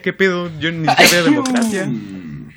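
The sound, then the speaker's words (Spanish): A person sneezes once, sharply, in the middle of a stretch of conversational talk that continues around it. “Salud, salud, salud.”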